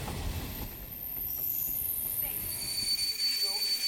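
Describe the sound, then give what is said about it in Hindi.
A train rumbles steadily while thin, high-pitched brake squeals whine over the low clatter, like a train slowing as it pulls to a halt. “जब सूरज ढला तो ट्रेन भी रुक गई”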